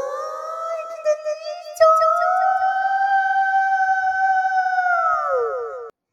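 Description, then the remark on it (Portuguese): A single long, high-pitched vocal note held steadily for about six seconds, sounding almost like a siren, with a brief wavering start and a slight drop at the end before cutting off. “quase uma sirene, eu poderia ter ficado mais.”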